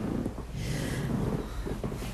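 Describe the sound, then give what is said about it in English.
A hotel bed creaks in a low, drawn-out groan under someone's shifting weight, quiet, with a soft rustle around it and no talking. “this bed is so creaky, and there's nowhere else comfortable to sit.”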